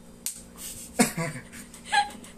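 A few sharp smacks of a palm slapping a man's face, spaced roughly a second apart, each a quick fleshy crack over a quiet, faintly noisy background.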